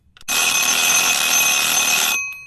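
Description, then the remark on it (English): A loud, continuous electronic ringing alarm like an oven timer going off, on a Radio France International quiz segment, sustained for about two seconds with a bright, buzzy tone, then cutting off abruptly. “Because it's time to get that quiz out of the oven.”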